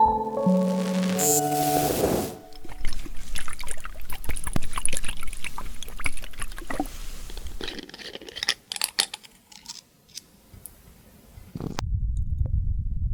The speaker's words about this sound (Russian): Вот примерно такой звук вы услышите, если вам будут наливать в ухо воду.